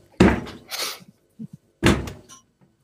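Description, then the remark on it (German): Two loud, hollow thuds of a kick against a humming refrigerator to make it stop, spaced over a second apart, each with a brief rattling ring and a few soft knocks between them. “Tritt mal gegen den Kühlschrank, der hört dann auf.”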